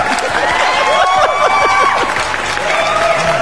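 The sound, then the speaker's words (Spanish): A sound effect of dense applause from a large crowd, played on a radio broadcast, steady and loud throughout, with cheering voices and whoops rising over the clapping. “¡Se poner aplausos. ¡Aplausos! Aplausos para el patrón.”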